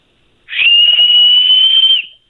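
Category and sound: human body sound, loud human whistle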